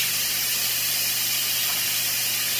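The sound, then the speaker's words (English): A steady, loud hiss of steam rushing out of a pressure cooker's release valve as the pressure is relieved, continuous with no breaks, and no one talking over it. “Gotta relieve the pressure until absolutely no more steam comes out.”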